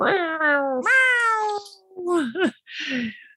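A cat meows several times up close, first a long, drawn-out wavering yowl, then shorter rising and falling meows in quick succession, loud and clear with no talking.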